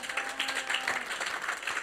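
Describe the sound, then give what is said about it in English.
An audience claps for the Lord Jesus, a dense, steady wash of many hands that fills the space for a couple of seconds, with no one speaking over it. “Clap for the Lord Jesus.”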